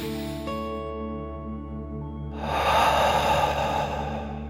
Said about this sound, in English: As you imagine the elephant, let's take another deep dragon breath. Here we go. Deep breath in and out.